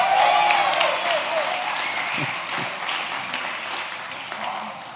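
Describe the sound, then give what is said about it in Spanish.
A large audience breaks into loud, sustained applause for the front row, a dense wash of clapping with some voices mixed in early on, gradually easing off over several seconds. “Ah, uh, Un aplauso para la primera fila, chicos.”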